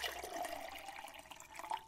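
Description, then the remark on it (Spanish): Water pours steadily into a glass for about two seconds, a gurgling splash with a faint rising ring as it fills. No one speaks. “Sí, es cierto, ten esta dona, pásame un vaso de agua.”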